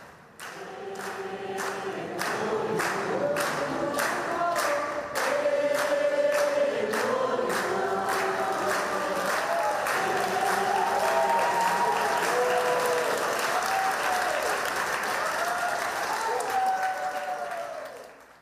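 Steady applause from a large group at a wake in the foyer of Rio's Teatro Municipal before a cremation, sustained for the whole stretch, with murmuring voices and artists singing beneath the clapping.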